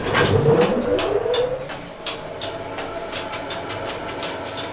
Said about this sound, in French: Voilà, donc je vais démarrer le moulin, ça va faire du bruit un peu. Hein.